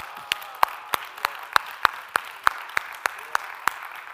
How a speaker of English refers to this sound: All the moms in the room, this hand claps for you today.